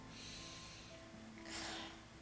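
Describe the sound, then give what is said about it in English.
Two heavy, gusty breaths blow directly into the microphone, one early and a stronger one near the end, airy with a faint steady hum beneath and no talking. “that's probably because I'm breathing again.”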